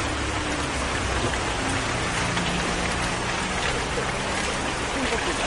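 Steady rain pours down outside a residence in a dense, unbroken hiss, with a low rumble running underneath throughout the few seconds.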